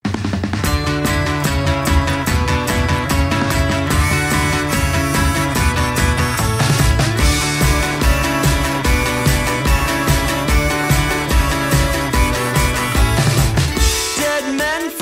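A band plays a rock song with a full, loud mix of driving drums and guitars, steady throughout before cutting off abruptly near the end. No one speaks.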